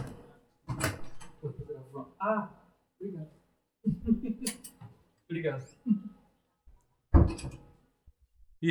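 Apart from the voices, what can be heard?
door opened and closed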